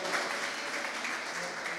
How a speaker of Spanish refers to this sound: Fuerte el aplauso a nuestro Señor y Salvador Jesucristo.